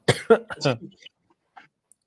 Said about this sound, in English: My bad. I'm like coughing all over.